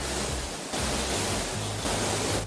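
Spaghetti going into a pot of about 2.5 to 3 liters of boiling salted water: a steady, rushing hiss of bubbling water that swells slightly a couple of times, with no voices.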